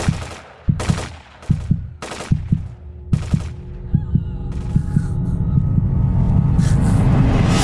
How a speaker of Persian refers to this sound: آخرین لحظه که میخواستم بپرم صدای یه توفنگ جدید اومد چشامو باز کردم دیدم یه هلیکوپتر رسیده بالای سرمون از بالا دارن زامبیا رو میکشن